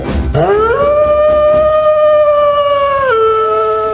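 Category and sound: sound effect, werewolf howl sound effect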